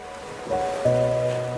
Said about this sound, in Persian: هرچه بیشتر روی صدای موجهای ساحل تمرکز می کنید حس آرامش بیشتری می گیرید آب عقب میره و موجها سریع به جلو میان و جاشون رو پر میکنن آب عقب میره و موجها به جلو میان